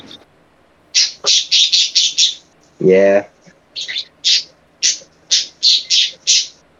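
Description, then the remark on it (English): A rapid series of harsh, nasal squawking, quacking bird calls repeats in quick bursts, fairly loud, with a brief spoken interjection in the middle. “Just like a weird, like quacking noise. Oh, we got birds.”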